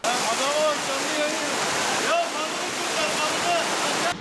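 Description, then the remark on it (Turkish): Steady, loud roar of rushing flood water that came down from higher up, carrying trees, market food and barbecue grills, fills the whole stretch, dense and unbroken, with faint voices now and then barely rising above the torrent before it cuts off abruptly. “Yukarıdan sel geldi işte bu yukarıda üst taraftaki fırının ağaçları falan geldi.”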